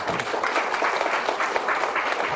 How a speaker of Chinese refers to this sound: 来，给这位朋友掌声鼓励。